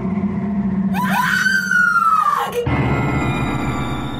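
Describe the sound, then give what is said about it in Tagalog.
A woman's loud, drawn-out scream rises and falls over about a second and a half, over a low rumbling bed, then breaks into a harsh, noisy gust-like roar as strong wind enters an old Spanish-style house. “Isang malakas na hiyaw ng isang babae ang pumailan lang sa ere kasabay ng pagpasok ng malakas na hangin sa loob ng bahay Kastila.”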